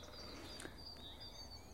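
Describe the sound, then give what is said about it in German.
A faint chorus of blackbirds woven with other songbirds such as yellowhammer, great tit, dunnock and marsh tit, with a great spotted woodpecker drumming now and then and a wood pigeon calling; thin overlapping whistles and trills drift steadily over a soft background hush, with no voices. “der Amselteppich ist durchwoben von anderen Gesängen.”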